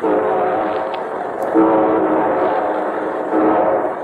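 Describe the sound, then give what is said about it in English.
A train rumbles steadily while its horn sounds in sustained, loud blasts, swelling again near the end as it approaches, introducing the Railroad Hour radio show. “And here comes our star studded show train.”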